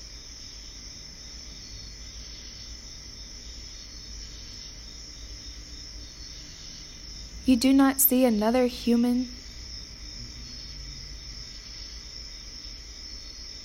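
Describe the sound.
A steady, high-pitched chorus of cicadas and crickets chirps continuously through the night air among trees, with a voice speaking briefly over it partway through.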